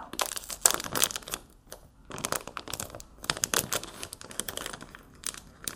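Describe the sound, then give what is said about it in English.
A sealed deck of 36 Rotten to the Core trading cards being unwrapped: bursts of crinkling, crackling plastic wrap with a few sharp tears, irregular and fairly loud, with no voices. “Let me crack this open. There should be 36 cards here, just like the rest of them.”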